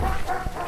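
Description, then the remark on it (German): A dog, belonging to the local electrical goods shop, barks in Brandenburg, Germany: short muffled yaps set against a steady wash of outdoor background noise, with no one speaking. “Bellt auch mal irgendwo ein Hund.”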